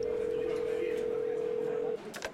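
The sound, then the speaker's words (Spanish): A steady, fairly loud dial tone from a public telephone at the end of a bar hums for about two seconds, then cuts off, followed by a few quick clicks or beeps of dialing over faint background murmur. “se dirige al teléfono público que se encuentra al final de la barra.”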